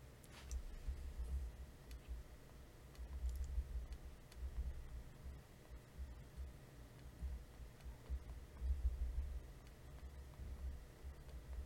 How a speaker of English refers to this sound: I'm sorry, I'm typing to someone to try and get a report on the event.